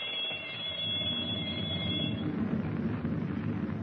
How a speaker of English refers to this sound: submerged the submarine and is about to fire a torpedo at a passing ship just to test the submarine's firing mechanism. In the control compartment, he holds Captain Denning at gunpoint while the torpedo firing alarm bell rings through the steel hull.